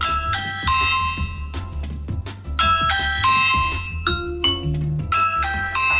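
A smart video doorbell chime, triggered at the front door during a demonstration in a studio, plays a bright, bell-like electronic melody of stepped tones, repeating in phrases over a steady low background hum, fairly loud with no talking. It sends notifications to an Echo and a smartphone.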